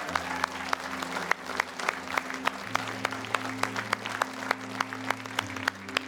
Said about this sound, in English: Let's clap for the person in Montgomeryville right now.